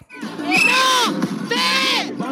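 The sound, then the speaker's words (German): A crowd of young voices, Bulgarian school graduates celebrating finishing school, chants loudly in unison, two long shouted calls in quick succession, energetic, counting together up to twelve. “Diese Sprechchöre sind derzeit überall in Bulgarien zu hören. Abiturienten und Abiturientinnen zählen bis zwölf.”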